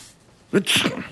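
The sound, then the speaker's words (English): A single sneeze, caused by allergies flaring up from the wind: a short voiced intake of breath, then a loud, hissy burst that trails off quickly against a quiet background. “Bless you.”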